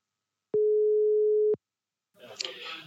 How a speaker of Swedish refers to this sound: Ska vi slå en signal? Ja, men jag tycker det.